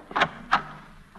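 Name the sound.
door being opened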